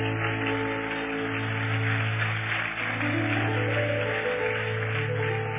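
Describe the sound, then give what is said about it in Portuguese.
An audience at a worship service applauds God steadily and enthusiastically for several seconds, a dense, even wash of clapping, with a low sustained musical tone humming underneath and no one speaking. “Agora aplauda ele forte, porque ele é lindo.”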